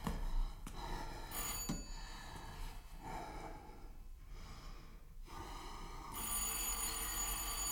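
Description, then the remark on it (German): A doorbell at an apartment rings again and again at eight in the evening, a bright, metallic jangle in steady bursts with brief pauses between them, fairly loud, with no one speaking and no one answering. “Studer läutete, läutete. Niemand kam ihm öffnen.”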